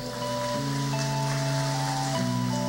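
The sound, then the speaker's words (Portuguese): Steady, dense applause from an audience at a carnival gathering, given for Padre Léo, a continuous crackling wash of clapping, with sustained keyboard or organ chords ringing underneath and shifting pitch a couple of times. “E eu digo para você uma coisa, dá uma salva de palmas para o Padre Léo primeiro.”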